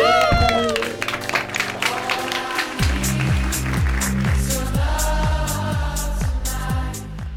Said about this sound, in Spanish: ¡Aplausos!